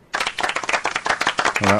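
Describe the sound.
An audience breaks into steady, dense applause, many hands clapping at once in a bright crackling wash, with a short voiced cheer rising above it just before the end.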